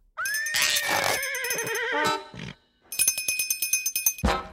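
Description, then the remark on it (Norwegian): A cowbell worn by a person clangs loudly, first in a long shaking jangle with a wavering ring, then after a brief pause in a quick run of about a dozen sharp, rhythmic clanks. “Hvorfor har Ed på seg bjelle som en ku?”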